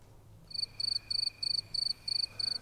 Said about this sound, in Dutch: Kan je hier krekels in monteren?